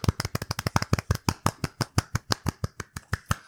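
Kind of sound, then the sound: crowd, applause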